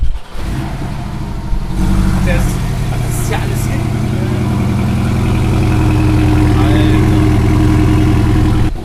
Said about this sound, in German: so, machen wir Motor an. Pass auf jetzt hier.